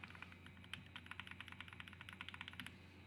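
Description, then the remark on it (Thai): Rapid, crisp clicking of keys being typed on the speaker's own mechanical keyboard, steady, with a quick irregular rhythm of sharp taps and no voices. “วันวันไม่ทำนั่งฟังเสียงคีย์บอร์ดตัวเองเล่นครับ ถามว่าโรคจิตไหมโรคจิตครับ แต่ถามว่าชอบไหมชอบครับ”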